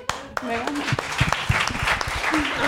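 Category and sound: human body sound, one person clapping hands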